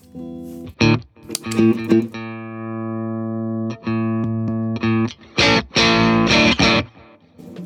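An electric guitar plays through a Strawberry Red Overdrive Deluxe pedal at low gain (about nine o'clock), bass and mid at zero, treble slightly boosted, presence at three o'clock: a few strummed chords ringing out and sustaining, then a burst of quick choppy strums, fairly loud with no voices.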